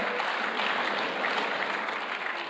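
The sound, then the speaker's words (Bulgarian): A church audience applauds together as an offering to God, a dense, steady wash of many hands clapping at an even loudness throughout, with no voices standing out above it. “О, хайде, нека да дадеме на Бога едно дарение за ръкопляскане.”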